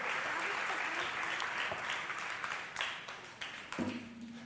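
A church audience applauds the children steadily, a dense crowd of clapping filling the whole stretch, with a brief low tone and a few sharper claps near the end as it begins to thin.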